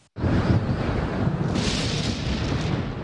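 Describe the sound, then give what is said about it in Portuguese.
A lightning strike hits with a sudden, loud thunder boom, then rolls on as a heavy, sustained rumble that turns hissy partway through. No one speaks. “O Brasil é o país com a maior incidência de raios do mundo.”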